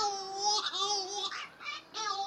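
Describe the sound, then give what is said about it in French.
A male Cory's shearwater, a seabird ashore to breed, sings its courtship love song with chest puffed out: loud, nasal wailing cries that sound almost like a whimpering baby, one long wavering phrase followed by shorter bursts. “Ce que vous avez peut-être pris pour des gémissements ou des pleurs de bébé sont les cris du puffin cendré”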